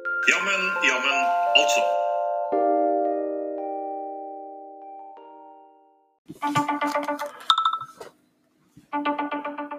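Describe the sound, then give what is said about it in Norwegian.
A telephone rings with a bright electronic melody as a caller phones in to a call-in programme. A chiming phrase rings out and slowly fades, then the tune returns in two short, loud bursts separated by a brief pause. “Ja, der ringer det.”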